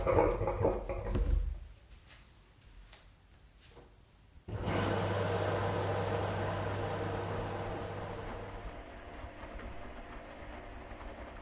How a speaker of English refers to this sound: Let's start. And there it is the sound of the washing machine, a fanfare for my new life.